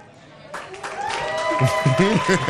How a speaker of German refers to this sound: Wir sind ehrliche Verlierer. Und deswegen gibt es jetzt einen Applaus für euch